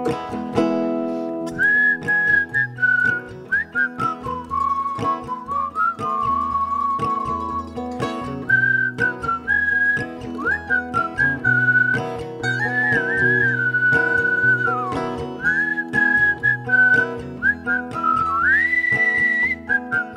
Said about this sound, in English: You can whistle at home.